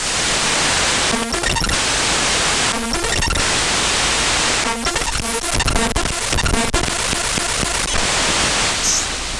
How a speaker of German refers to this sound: Also das kommt raus, wenn man versucht, eine Exe-Datei in SoundForge zu laden. Das geht, wie gesagt, mit jeder beliebigen anderen Datei auch, selbst MP3-Dateien, wie man gehört hat.